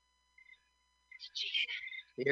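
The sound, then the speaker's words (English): Crickets chirping in the background: thin, high, steady tones, then a brief, denser burst of trilling. A voice starts speaking right at the end. “you recognize that noise in the background, the crickets chirping?”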